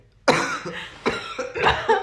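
A run of several harsh, dry coughs in quick, uneven succession, close to the microphone and fairly loud, with no talking in between.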